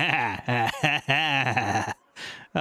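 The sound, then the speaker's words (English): A person's voice imitates a sheep, letting out a long, wavering bleat with a shaky vibrato, broken into a few quick pulses, followed by a brief breathy exhale. “His his his little sheep ears perk up, and he goes,”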